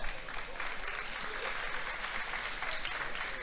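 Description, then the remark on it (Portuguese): An audience applauds a church worker for a few seconds, a dense, even wash of many hands clapping at a consistent level with no voices standing out. “Quem pode aplaudir o obreiro lá?”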